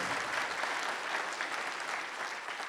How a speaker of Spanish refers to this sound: Denle un aplauso al Señor esta mañana.